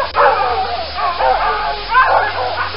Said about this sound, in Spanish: Soy un perro rojo de instinto animal. Con mis ladridos me comunico con otros perros.